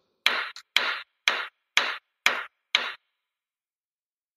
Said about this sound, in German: Klopfen. Genau, was könnte dieses Klopfgeräusch verursachen? Der Mann mit. Ein Begriff aus dem Laufsport. Womit, womit klopft man? Es ist ein Werkzeug, ich sag mal so viel. Ein Werkzeug, was du zu Hause hast, wenn der Mann mit dem Hammer.